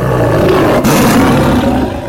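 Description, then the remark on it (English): A lion lets out a loud, sustained roar that fills the whole stretch, deep and rumbling with a rough, broad texture, with no talking. “took a deep breath and let out a loud roar”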